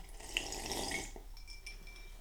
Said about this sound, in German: Schlürf. Beim Klöder muss man auch dazwischen mal schlürfen, ne?